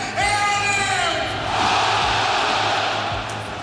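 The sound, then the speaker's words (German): A large football stadium crowd at a Borussia Dortmund match, in the second half, roars and cheers, a dense wall of shouting voices with rising yells that swells louder midway and stays loud throughout. “Das beflügelt die Zuschauer. Der Funke springt über. Die Stimmung fantastisch.”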